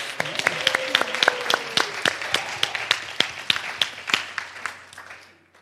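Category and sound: crowd, audience applause and cheering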